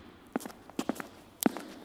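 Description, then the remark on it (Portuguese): Footsteps of a person walking to a door, a handful of soft, uneven thuds, some in quick pairs, with short pauses between them. The steps are fairly quiet and stand alone with no talking. “Conforme caminhava até a porta, foi pensando em como aquilo tudo era esquisito.”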